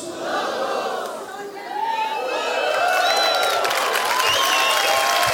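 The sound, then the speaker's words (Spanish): A large audience shouts the slogan "Somos muchos" ("We are many") together in unison, many voices blending into a loud, sustained roar that grows stronger and more excited toward the end. “Pensé que lo iba a gritar más fuerte. Somos muchos.”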